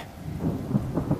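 Low rumbling thunder rolls under a steady wash of rain, the rumble swelling in a few heavy pulses across the short stretch with no voices.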